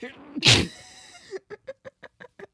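A single sharp, loud sneeze bursts out close to the microphone, followed by a quick run of short, rhythmic laughs.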